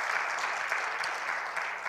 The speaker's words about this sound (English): Yeah, amen. Praise the Lord. We can, we can clap at that.